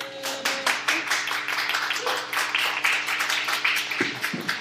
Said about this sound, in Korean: 감사합니다. 박수 좀 주세요.